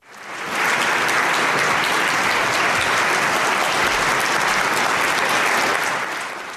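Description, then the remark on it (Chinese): A large crowd, among them Yulia, wife of Alexei Navalny, applauds and cheers: a dense, steady wash of clapping that swells in within the first half-second and holds at an even, loud level for several seconds before easing slightly at the end. No one speaks. “在鼓掌欢呼的人群中，我们看到了阿列克谢·纳瓦尔尼的妻子尤利娅。”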